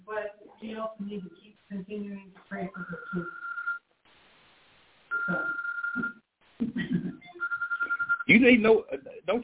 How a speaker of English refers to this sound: You set that alarm for church. I, I don't know what that alarm is for, damn. But it goes off every time.